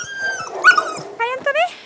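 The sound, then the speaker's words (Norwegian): A woolly white three-month-old female husky puppy named Strøm growls and grumbles in a few short, whiny bursts, its voice rising and wavering, with a soft rustle in the background. “Det er hennes alldeles egen huskevalp.”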